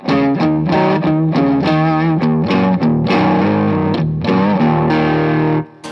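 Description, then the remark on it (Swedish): A heavily distorted electric guitar, with the amp gain turned up quite high and the tone kept relatively low, plays a steady run of loud, sustained chords with a dark, low-toned character, cutting off abruptly just before the end. No one speaks. “Nu drar jag ner, eh, eller drar upp pressens ganska mycket men har tonen relativt låg fortfarande.”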